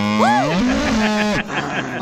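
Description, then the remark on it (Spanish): A cow moos once, a drawn-out, fairly loud call that rises and falls in pitch before trailing off, played as a sound effect on the radio program El Show de Piolín. No one speaks over it. “salga la vaca!”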